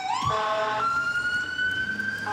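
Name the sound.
ambulance siren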